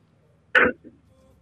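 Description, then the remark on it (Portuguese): A single sharp, forceful sneeze during a radio call-in programme bursts out of near silence, followed by a brief softer exhale, with a faint low hum running underneath. “Saúde tá”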